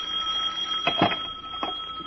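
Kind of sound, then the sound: household object, telephone ringing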